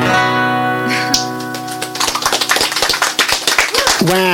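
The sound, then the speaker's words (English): A sustained musical note ends a live song, then an audience breaks into dense, loud applause with whoops and cheering voices rising over the clapping. “big cheer again.”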